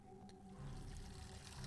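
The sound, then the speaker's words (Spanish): A steady stream of urine splashes into the water of a toilet bowl, a continuous soft trickle, fairly quiet, with a faint low hum underneath. “El sonido chasqueante de su orina contra el agua del inodoro fue liberador.”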